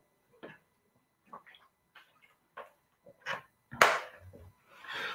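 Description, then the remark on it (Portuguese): A speaker with a throat inflammation drinking water, with no talking: a series of short, soft clicks and gulps, then a louder wet swallow followed by a breathy exhale at the end. “Vou tomar uma água aqui, meus irmãos, estou com uma inflamação na garganta, peço desculpas, mas nós vamos ver minha voz falhando um pouco.”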